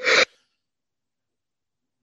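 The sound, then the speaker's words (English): A single sharp sneeze bursts out, lasting only a fraction of a second, then everything falls silent. “bless you.”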